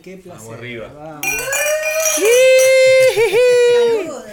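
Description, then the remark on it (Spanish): Several glasses clink together in a toast, their bright ringing tones layered and lingering over a few seconds while a group of people talk and cheer loudly. “Vamos, a hacer el ruidito, vamos, vamos, pero ahora entre toda la gente,”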